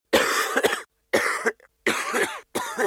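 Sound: coughing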